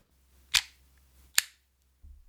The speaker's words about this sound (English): I was just going to ask do you use this thing like a fidget cube now? With the little clicking in and out?